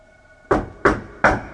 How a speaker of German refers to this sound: Er hatte seine Augen noch nicht lange geschlossen, als seine Mutter an der Tür klopfte, um Tom zum Abendessen zu holen.